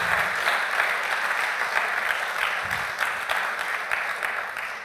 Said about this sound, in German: Applaus